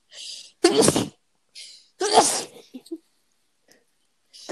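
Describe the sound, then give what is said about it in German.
Two loud sneezes close together, each a sharp inhaled hiss snapping into a burst, with brief quiet gaps and a final breathy hiss trailing at the end. “Gesundheit.”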